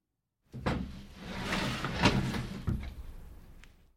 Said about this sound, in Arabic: ترددت النادلة لوهلة قبل أن تفتح الباب